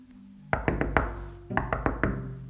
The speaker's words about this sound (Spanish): Liebre tocó la puerta de Cochinito.